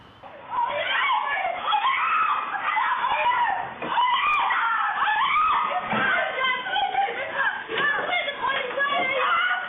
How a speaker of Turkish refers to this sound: Şişli'de, İstanbul'un göbeğinde bir kadın boşanma aşamasında olduğu eşi tarafından böyle kaçırıldı. Ne çevredekilerin engelleme çabası, ne direnmesi, ne attığı yardım çığlıkları, ne de ailesinin defalarca yaptığı başvurular fayda etti.